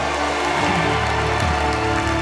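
An audience claps steadily in a dense, continuous burst of applause, with a low sustained musical tone humming underneath throughout.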